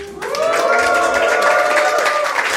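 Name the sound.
audience cheering and applauding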